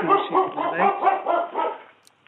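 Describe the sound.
A dog barks in a quick, steady string of sharp, fairly loud barks for about two seconds, close by, then falls quiet, with a voice faintly present beneath.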